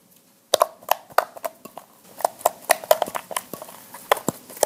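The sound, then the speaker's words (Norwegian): Homemade fluffy slime made with borax being squished, giving off a quick, irregular series of wet pops, clicks and sticky crackles that start after a brief silence and continue steadily with no talking. “Jeg har klart å lage slim. Det setter seg ikke fast i fingrene mine. Jo, lite grann. Hører på de her lydene.”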